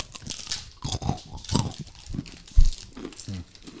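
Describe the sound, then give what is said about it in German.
Crisp crunching of a crunchy Mr. Tom peanut bar being bitten and chewed, with irregular crackly bursts of chewing over a few seconds and no talking. “Ja, hör mal, da knistert das richtig gut.”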